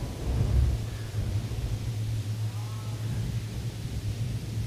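Deep, sustained thunder rumbles through the whole stretch, swelling briefly near the start and then rolling on at a steady, fairly loud level with a faint hiss like rain. No one speaks.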